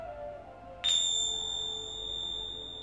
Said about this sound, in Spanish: Siente como el sonido de las campanas entra dentro de ti.